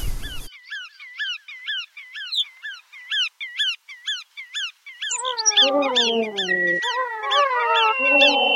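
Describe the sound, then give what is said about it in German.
Bar-tailed godwit calls: a quick, steady series of sharp, rising nasal notes, then a denser chorus of several birds calling over one another, loud, with no talking. “Sagen auch die Nationalparkfreunde Wattenmeer damit der Vogel der Woche, der Ironman unter den Zugvögeln, alle mal unter den Wartvögeln, die Pfuhlschnepfe.”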